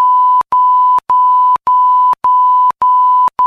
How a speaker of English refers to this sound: Yeah, we can swear all we want because I was gonna beep him out later.